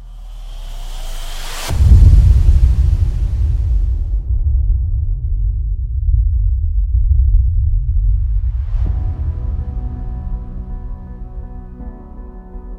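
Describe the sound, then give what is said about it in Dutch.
A sudden massive explosion as an asteroid from space strikes Earth, then a deep, heavy rumble rolls on for many seconds, swelling again later with a low droning roar. “Wat gebeurde er precies in de seconden, minuten, dagen en uiteindelijk jaren na deze helse klap?”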